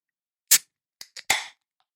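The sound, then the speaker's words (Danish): A can of Vienna Lager beer is cracked open: a sharp pop with a short hiss, two small metallic clicks, then a louder snap followed by a fizzing hiss that fades quickly. No one speaks. “Skal vi ikke, øh, skal vi ikke prøve at høre, hvad den kan?”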